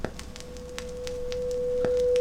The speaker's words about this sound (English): Yeah, they're gonna get higher. And we're, we're supposed to say when we can't hear the tone anymore. Like if you're if you're a dog, you can hear all of the tones.